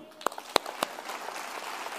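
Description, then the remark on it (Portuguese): An audience applauding: a few sharp, separate claps open, then many hands join in a dense, steady patter of clapping that carries on to the end, with no voices. “Aplauda ele.”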